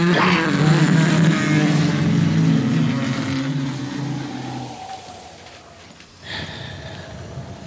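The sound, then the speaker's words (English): A boat engine roars at full throttle as the boat goes full speed ahead in fog, a loud, steady low drone for about five seconds before fading away, followed by a short surge of engine noise near the end. “Tell Corner to swing over two points. There's something over there that looks like a boat. Full speed ahead before we lose her in the fog again.”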